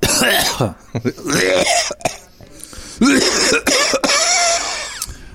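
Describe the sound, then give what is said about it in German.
Several harsh, phlegmy coughs and throaty clearing noises follow one another in loud, rasping bursts, with gravelly voiced grunts between them over a few seconds. “Aber Räuspern ist das ja gar nicht, das ist ja eher so Brockenhusten, ne?”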